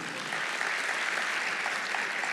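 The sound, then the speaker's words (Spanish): An audience applauds for the Lord, a steady wash of many hands clapping at once, dense and even throughout with no voices standing out. “¿Cuántos pueden dar un aplauso al Señor por eso?”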